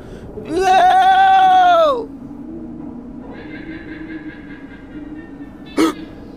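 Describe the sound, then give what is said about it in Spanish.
A man imitates a guanaco call to call a guanaco: one loud, nasal, whinny-like cry of about a second and a half that drops in pitch. A fainter answering call from the guanaco and a brief sharp click follow. “Niños, escuchen y aprendan. Así se llama al guanaco.”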